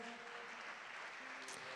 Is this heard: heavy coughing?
no